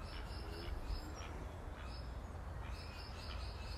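Faint birds in a neighbour's aviary chirp and twitter in the background, short repeated calls scattered over steady outdoor noise and a low rumble, with no one speaking.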